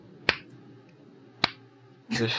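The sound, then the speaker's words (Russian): Two sharp, isolated smacks about a second apart, like a palm slapping at mosquitoes, imitated against a low hum. A voice starts talking just after the second slap. “все это комарье бьет.”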